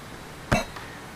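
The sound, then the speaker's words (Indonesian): A single sharp cough bursts out at close range against a quiet background, followed by a faint softer catch of breath just after. “Belum masih mula udah batuk-batuk”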